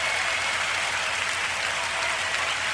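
A round of applause: dense, steady clapping from many hands that holds at an even, fairly loud level for the whole stretch, with no voices over it.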